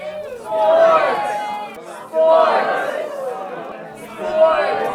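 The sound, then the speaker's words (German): A cinema audience cheers and shouts in three loud, rising surges about two seconds apart, many voices yelling together with a constant babble of excited chatter between the bursts, cheering on film characters tossing a football back and forth. “Auch hier feuert das Publikum an.”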